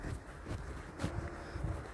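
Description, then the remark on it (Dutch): Soft footsteps crunch along at a brisk, steady walking pace through a forest, each step a faint scuff over a low outdoor hush with a little wind. “Ik hoor mijn eigen lopen.”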